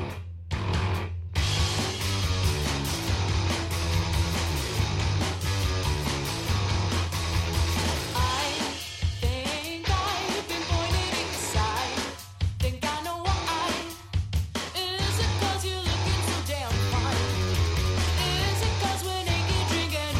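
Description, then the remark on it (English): A full-band song plays loudly and continuously on a radio broadcast, with a heavy, steady bass line under busy guitars and rhythmic percussion, the mix staying dense from start to finish. “this is …. You make me say no.”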